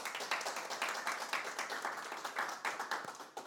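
A church audience applauds for the Lord Jesus Christ, a dense, steady patter of many hands clapping that holds evenly throughout with no voices over it, heard at a fairly soft level.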